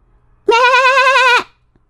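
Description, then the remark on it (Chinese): A single sheep bleat, loud and wavering, with a quavering, nasal tone lasting just under a second, then silence, from sheep eating grass and playing in Sheep Village. No one speaks. “阿巴每天最喜欢做的事儿，就是到绵羊村，远远的看着羊儿们吃草、做游戏。羊儿们喜欢聚在一起，他们相亲相爱，就像一个大家庭。”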